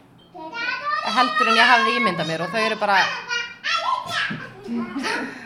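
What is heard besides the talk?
children playing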